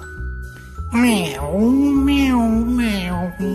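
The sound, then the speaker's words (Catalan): A person imitates a cat with one long, drawn-out meow, its pitch rising and falling in a sweet, wavering voice, fairly loud over a faint background. “I el gat va miular.”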